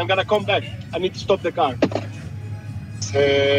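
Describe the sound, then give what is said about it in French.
A man driving his car out to buy provisions speaks briefly, then a loud, steady missile warning siren starts up, holding a sustained, even tone with a rich layered pitch through the final half second. “Oh, ah, il y a une alarme.”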